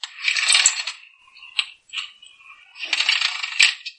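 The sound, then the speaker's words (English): A voice imitates the very loud creaking of an old, large sliding glass back patio door being slid open: two harsh, raspy scraping bursts, fairly loud, separated by a brief gap with a few small clicks and squeaks. “I slid it open, and as usual, it made a very loud creaking noise”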